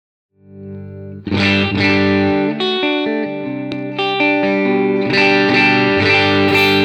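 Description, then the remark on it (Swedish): An electric guitar played through a low-gain tube pedal, with a lightly overdriven, warm tone, plays a sustained chord, then a sequence of ringing chords and single notes, loud with no talking. “men även när man ställer in liksom med low-gain så här, så att man tänker så här, rena ljudet”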